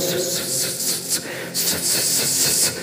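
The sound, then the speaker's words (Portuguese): A voice imitates a pressure cooker valve releasing high pressure: a steady, breathy hiss rising and falling in bursts, with hissing surges through nearly three seconds, fairly loud. “como quando a panela de pressão ela está alta, a pressão está alta ali, aí aquela válvula sempre começa”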